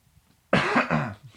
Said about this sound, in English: sorry to cough a little bit.